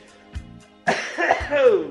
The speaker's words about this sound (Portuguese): Deixa eu tossir.